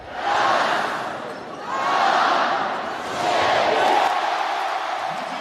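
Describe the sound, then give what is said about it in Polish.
Polish volleyball fans chant together, counting the players' ball touches in three loud, rhythmic swells of massed voices, each rising and fading about every second and a half, with a steady crowd roar beneath. “Zawodnicy też bardzo liczą na kibiców, a kibice liczą odbicia piłki przez zawodników.”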